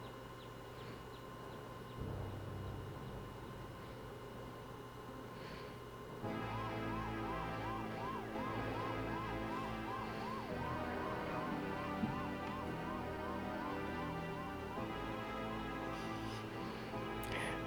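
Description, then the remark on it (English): An ambulance siren wails in a steady, rising-and-falling pattern over a low engine rumble as the ambulance doors close. The sound jumps louder after a few seconds and continues at a constant level. “And there it was the MacGuffin and the ambulance what I was referring to was the closing of those doors as the closing of, you know, of course, the drama and uh, the suspense and everything else.”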